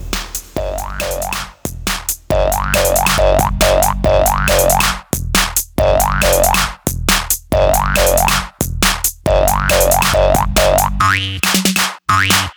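Loud, driving electronic dance track built on bouncy, springy poing synth stabs that repeat in a steady rhythm over a heavy bass and beat, with brief drops and a fuller break near the end.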